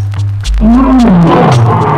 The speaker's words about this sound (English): Being king of beasts is his claim to fame. You've heard his roar, now tell me his name. Lion, good show.